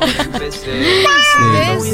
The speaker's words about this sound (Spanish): le pongo también un video que es llamador de gatos. Ah, sí. Y tiene. Ah, ahí está Roma. Em, hay ronroneos y hay algunas em, unas frecuencias que al gato le molestan. Entonces tiene que venir, sí.